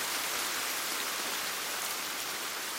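Steady rain falls on a town while a car is driven through it, a continuous, even hiss with fine pattering texture and no distinct individual drops standing out. No voices; the downpour fills the whole stretch at a moderate level.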